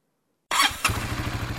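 After half a second of silence, the engine of a newly bought motorcycle is started. It cranks and catches with a bright burst, then settles into a steady, rhythmic single-cylinder putter at a low pitch.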